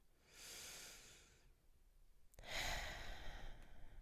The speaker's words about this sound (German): Deine Atmung hörst du.